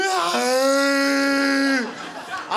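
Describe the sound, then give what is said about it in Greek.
A voice imitates a young woman's crying as a donkey-like cry: one long, loud, strained bray-wail held steady for over a second before trailing off into quieter breathy sounds. “Όχι, κλαίει σαν διασταύρωση ταλικέρι με γάιδαρο.”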